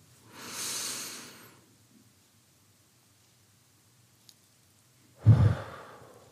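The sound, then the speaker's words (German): A deep, forceful breath taken into the heart centre, with a hand pressing lightly on it: a long airy inhale lasting about a second, a pause, then a heavy, gusty exhale that swells loudly and tapers off. No one speaks. “Leichten Druck ausüben, dass deine Aufmerksamkeit dort hineinfließt, und einmal tief und kräftig genau dort hineinatmen.”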